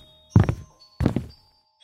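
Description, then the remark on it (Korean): Two heavy, thudding footsteps of men who came in without taking off their shoes land about half a second apart on a hard floor, fairly loud and coming closer toward a kitchen, with no voices and near silence around them. “남자들의 발자국 소리가 들려왔다. 신발도 벗지 않고 들어오는 모양이었다. 발자국 소리가 점점 가까워졌다.”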